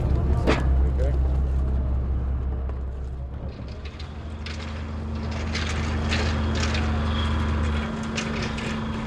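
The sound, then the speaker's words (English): Clattering, rattling bursts of ceremonial buckets of oyster shells being dumped over the side of a boat by U.S. Senator John Warner to seed oyster beds, one early and a longer run later, over the steady low rumble of an idling boat engine, with faint indistinct voices. “Senator John Warner is here showing his support for the project by dumping a few ceremonial buckets of oyster shells over the side of the boat.”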